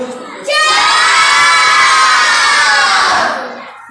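A group of children shout goodbye together in one loud, sustained, energetic collective cry lasting about three seconds, before trailing off.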